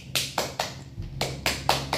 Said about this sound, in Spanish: Baruch Hashem, dale un fuerte aplauso por eso.